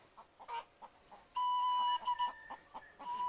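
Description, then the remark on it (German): Free-range chickens in a mountain village in China cluck in short, repeated bursts, and a rooster lets out a loud, drawn-out crow midway through. A steady high-pitched hum runs underneath. “Quasi 1A Bio-Eier von freilaufenden Hühnern.”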